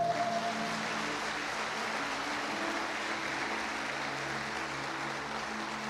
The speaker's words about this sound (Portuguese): Dê um forte aplauso a Ele.